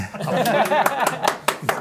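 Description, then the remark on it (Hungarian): About seven hand claps land in a steady, fairly quick rhythm, crisp, while a voice murmurs and chuckles softly underneath. “Egyébként Ilyenkor tapsolni kell, vagy?”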